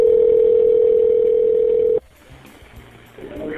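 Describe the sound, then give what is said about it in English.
As a 911 operator calls a kid's phone back, the line rings out with one steady, loud ringback tone lasting about two seconds, then cuts abruptly to a quiet, hissy line with faint clicks and murmurs as the call goes right to voicemail. “So the 911 operator disconnects the call, and then because he has this kid's phone number, he tries to call the kid back to see if maybe he'll pick up. It goes right to voicemail.”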